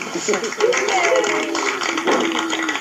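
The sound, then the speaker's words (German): A crowd gives extra applause to a team for a prize it won, with a steady, dense patter of many hands clapping sustained throughout, while voices murmur and call out over the clapping. “Ich glaube, das ist nochmal ein extra Applaus wert.”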